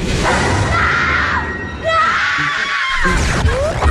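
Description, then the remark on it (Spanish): Loud, drawn-out screams, said to come from a mirror, rise and overlap in a continuous wail, several voices shrieking at once with a few sharp upward cries near the end, intense throughout. “Esos gritos no vienen de la calle, vienen del espejo, vienen del espejo.”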